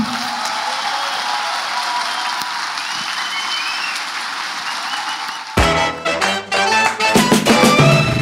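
An audience applauds an architect in a steady, dense wash of clapping for about five seconds, then music cuts in with sharp percussive hits and tonal notes while the applause fades under it.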